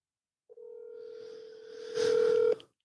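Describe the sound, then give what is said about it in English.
A telephone keypad tone sounds as one long, steady electronic beep lasting about two seconds, growing louder near the end before cutting off abruptly, with no voices. “I should have called him on the uh on the the house phone.”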